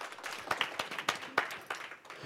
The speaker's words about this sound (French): On a un panel assez, euh, assez large. On peut les applaudir. Voilà.